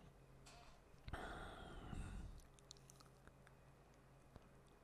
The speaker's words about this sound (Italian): Bevo in diretta, ragazzi. Il mio bricchetto di acqua depurata.